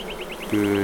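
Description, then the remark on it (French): A steady, droning buzz of a queenless, drone-laying honeybee colony whose spring-raised queen was poorly mated swells in halfway through, loud, over a faint repeating high chirp in the background. “C'est quand les abeilles n'ont pas de reine”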